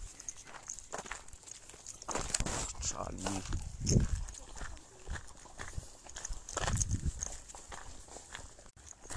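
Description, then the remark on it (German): Hooves clip-clop steadily as horses walk past, the rhythmic knocks mixed with outdoor rustle, while a person speaks briefly over them. “Ja, da kommen Pferde.”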